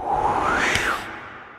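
A single sharp gust of cold, cutting wind rushes past in snow with a thin whistling tone that rises and falls, swelling to a peak before trailing off, loud with no voices.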